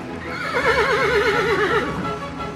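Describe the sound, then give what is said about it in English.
A loud horse whinny, a neigh at Paul, with a shaky, wavering pitch that rises and trembles for about a second before tapering off, heard alone without any talking. “And I neigh at Paul, like,”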